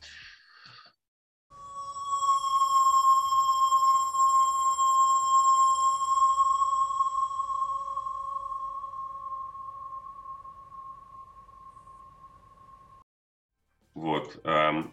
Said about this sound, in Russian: химический состав они перевели в звуки и проверили, насколько неприятным этот трек будет для людей.